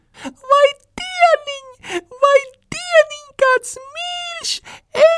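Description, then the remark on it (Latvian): A voice mimics an ancient little fly auntie's shrill, excited buzzing in a run of quick, whiny bursts with sliding pitch and hissy edges, ending on a long sustained drone. “Durvis pēc mirkļa atver mūžveca mušiņu tantīte, un ieraudzījusi puksīti, viņai sajūsmas iedūcas pavisam spalgi.”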